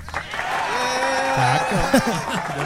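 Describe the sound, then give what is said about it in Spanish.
A stadium applause sound effect: a steady roar of dense clapping blended with a crowd's cheering and shouting voices, holding fairly even in loudness for about three seconds. “Supongo que debe ser un aplauso de estadio.”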